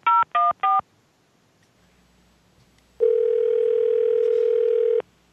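Three quick touch-tone beeps of a phone number being dialed, followed after a pause by a steady two-second electronic tone, clear with no one talking.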